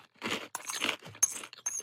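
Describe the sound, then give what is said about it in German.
Crunchy chewing of coconut granola eaten as a snack, in several irregular bursts, with sharp crackling bites breaking through a steady grinding munch, no talking. “Oder man knuspert es einfach so als Snack.”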